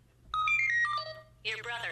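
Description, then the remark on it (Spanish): A phone ringtone for an incoming call plays a short, bright electronic melody of several stepped tones, followed by a denser burst of sound that may be a voice, over a low steady hum. “Your brother is attempting to reach you on your cellular device.”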